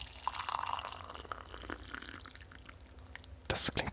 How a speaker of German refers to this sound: Ich äh, kipp mal gerade das Wasser hier ein. So, hört man das wahrscheinlich am Mikrofon